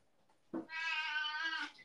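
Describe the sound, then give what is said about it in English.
A cat lets out a single drawn-out meow, starting with a short low chirp and rising into a bright, sustained cry that lasts just over a second, fairly loud with no talking. “The cat meowing was fantastic.”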